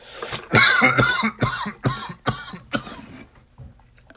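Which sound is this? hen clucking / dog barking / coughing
coughing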